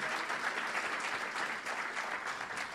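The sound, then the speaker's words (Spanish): An audience claps steadily, giving applause to Christ, a dense, continuous wash of many hands applauding at an even level throughout, with no voices standing out above it. “¿Cuánto le da un aplauso, fuerte a Cristo?”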